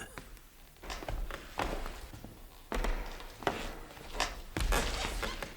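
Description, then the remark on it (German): Slow, heavy footsteps thud one after another at an uneven pace in a pitch-dark museum room at night, growing slightly louder as they draw nearer, with a low ambient hiss and no talking. “Und dann näherten sich Schritte.”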